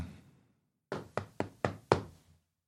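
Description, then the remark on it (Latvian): Five loud, sharp knocks on a door by the security police, in a quick, slightly uneven rhythm, after a brief fading sound and a moment of quiet. No one speaks. “Drošības policija, atver durvis!”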